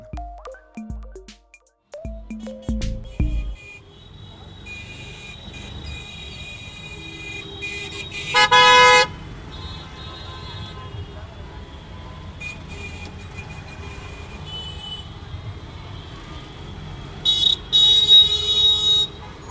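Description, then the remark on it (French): Busy Indian city traffic, with a steady rumble of engines and several loud horn honks: a cluster of short beeps at the start, a sharp blast midway, and overlapping honks near the end. “découvrir le caractère sonore intense de la circulation Made in India”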